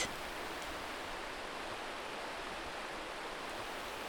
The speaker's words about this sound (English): We are in a river with clear waters and a little waterfall.